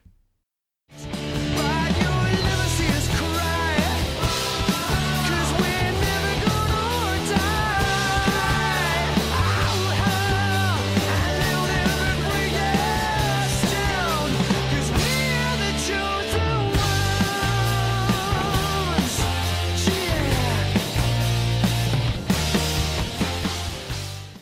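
Loud full-band rock music plays steadily for over twenty seconds, with a prominent, driving bass line moving beneath dense guitars and drums. No one speaks.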